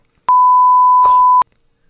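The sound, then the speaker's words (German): A single steady censor bleep, a pure loud tone held for just over a second, with a brief muffled burst of voice partly audible underneath in the middle. “Kein Problem mit dem Piepsen, kein Stress.”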